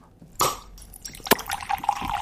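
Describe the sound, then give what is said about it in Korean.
A bottle cap pops off with a sharp burst, then fizzy soda pours out in a bubbling, gurgling stream, fairly loud, with a crisp snap midway. “아, 병 따고 탄산음료가 쏟아지는 소리.”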